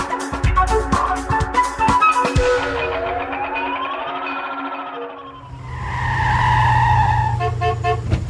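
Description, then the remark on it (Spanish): A car engine rumbles and rises in pitch as the vehicle draws near, then a loud horn honks over the idling motor, with a few short toots at the end. No one speaks. “Bueno, familia, llegó el carro, entonces nos fuimos.”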